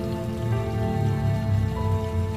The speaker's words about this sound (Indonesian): Namun hujan turun begitu saja.